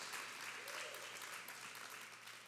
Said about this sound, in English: At every campus, give God a hand clap.